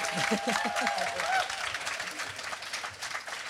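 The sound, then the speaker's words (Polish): A Big Book Festival audience breaks into lively applause, dense clapping spread across a crowd with a few cheers and voices mixed in, steady throughout before thinning slightly toward the end. “Prosimy o spontaniczne brawa.”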